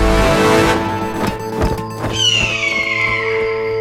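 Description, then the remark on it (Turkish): A shrill wild animal scream, like a hawk's cry, slides downward and trails off after a burst of clattering thuds, all over a steady low droning background. “Vahşi bir hayvan çığlığı.”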